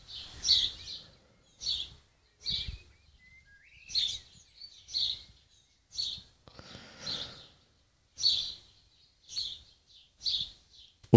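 Birds sing in a steady series of bright chirps and short trills, about a dozen bursts spaced roughly a second apart, clear, with no talking.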